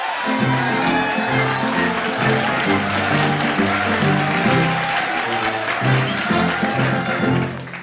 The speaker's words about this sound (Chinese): 好，同学们，掌声鼓励，欢迎这组《仙杜瑞拉的秘密》。